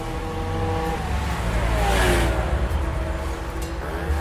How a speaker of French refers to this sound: À ses heures perdues, terme on ne peut plus adapter à son quotidien, le jeune homme roule à toute berzingue en moto, et sans assurance, évidemment.